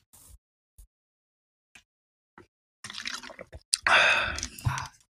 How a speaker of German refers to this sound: Und ich trinke, ich trinke jetzt gleich einen Schluck Wasser. Also wenn es jetzt laut ist, das ist immer absichtlich. Das sind unsere ähm, ASMR-Laute.